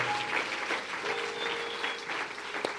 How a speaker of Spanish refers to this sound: Gracias, si lo crees, dale un aplauso al Señor fuerte. Gracias, Dios mío.